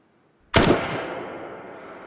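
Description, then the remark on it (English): A single sharp gunshot, originally under half a second long, cracks out with reverb added to make it sound as if recorded in a canyon, rolling away in a long, spacious echo that fades slowly. No voices are heard. “By adding reverb, we can make it sound like it was recorded inside a bathroom or like it was recorded inside a chapel or a church, or in a canyon.”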